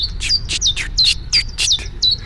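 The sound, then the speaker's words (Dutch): A common chiffchaff, a small brown bird, sings its steady, repetitive song in early spring: a string of short, high, alternating notes, about four per second, clear over a faint low background rumble. “We hoorden net al de chifchaf zingen.”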